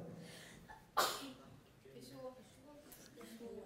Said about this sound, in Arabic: الرسول صلى الله عليه وسلم يقول عن المسلم إذا عطس فحمد الله هذا حديث صحيح في البخاري ها حق على كل مسلم سمعه